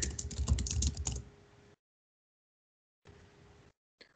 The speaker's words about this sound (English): We're getting some like typing ASMR right now. oh, good. it's my role play of me typing in typing in IMDb.